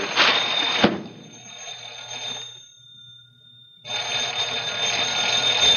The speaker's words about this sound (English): Answer that phone, boy. Go on, answer that dang phone.